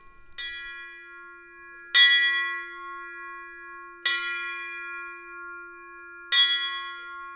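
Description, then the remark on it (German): A forged sheet-metal bell is struck four times at slow, uneven intervals, each hit ringing out with a bright, simple tone that lingers and overlaps the next strike. No voices are heard. “Die klingt ganz einfach, weil sie nämlich aus Blech geschmiedet ist.”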